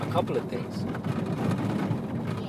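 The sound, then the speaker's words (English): A steady, rough low rumble of a car rolling over a badly paved, bumpy, uneven street fills the background, continuous, while a person speaks over it. “Oh, this noise. It's streets badly paved.”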